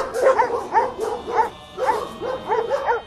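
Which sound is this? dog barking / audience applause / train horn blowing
dog barking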